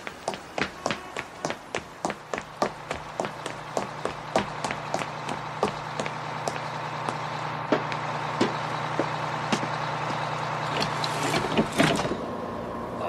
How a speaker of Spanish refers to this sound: Mire, ve aquel autobús con el motor en marcha. Sí. Ese es su autobús. Rápido, corra y alcáncelo porque está a punto de partir.